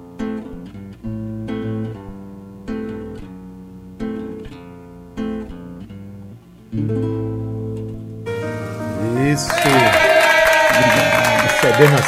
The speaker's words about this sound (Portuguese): palmas da multidão eletrônica da Tabajara.